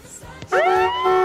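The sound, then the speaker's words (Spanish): A loud, brassy horn blast, a sound effect on the radio station Exa FM, cuts in after a short, quiet lead-in. Its rich tone swoops upward at the start, then holds steady and sustained until the end. “Bocinazo en Exa FM.”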